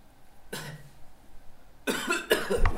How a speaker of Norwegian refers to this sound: Og så hoster du ordentlig. Ta ordentlig to hostedrag.